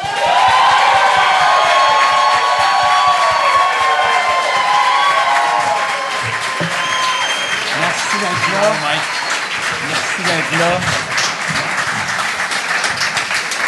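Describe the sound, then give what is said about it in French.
A large audience bursts into loud, sustained applause with cheers and whistles as two performers are introduced at a show. The clapping eases a little partway through as voices start to rise over it. “Fait que là, mesdames et messieurs, bonne main d'applaudissements”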